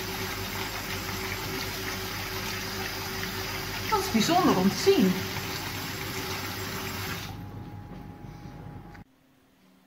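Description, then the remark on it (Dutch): A steady rush of water pours from a tap as it is moved, with a ping-pong ball following the water stream, then cuts off near the end. A person speaks briefly over the flow partway through. “Als ik de waterkraan iets verplaats, gaat het balletje mee.”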